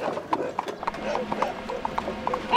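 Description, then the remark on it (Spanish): A horse-drawn cart, Fry Tuck's cart loaded with beer barrels, rolls into the square of Sherwood at dawn, hooves clip-clopping in a steady, brisk rhythm, with a rougher rumble of wheels beneath and a slight swell at the end. “Se oye la carreta de Fry Tuck.”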